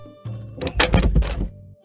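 door being shut

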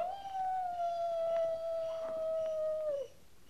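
coyote howling

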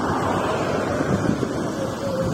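wind blowing outdoors

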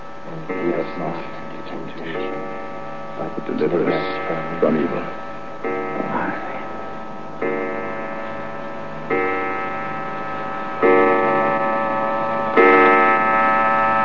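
clock striking twelve

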